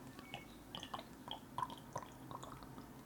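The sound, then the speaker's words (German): Quiet wet sips and slurps of a passion-fruit flavoured vodka cocktail from a glass, with a few small bright clinks of ice knocking against the sides. No one speaks. “Aber jetzt wollen wir es hier nicht länger hinauszögern. Ja, schippen wir es rein. Prost”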